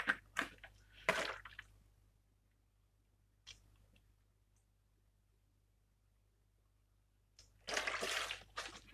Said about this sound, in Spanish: O sea, si me permitís voy a echar un trago de agua, porque tengo aquí mucha sed.